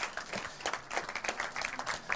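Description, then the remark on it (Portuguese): An audience breaks into a round of applause for a correct quiz answer naming Bong Joon-ho as director of the South Korean Oscar-winning film: many hands clapping in a dense, crackling wash that holds steady throughout, with no voices standing out. “Bom Joon-ho, tá uma salva de tá palmas.”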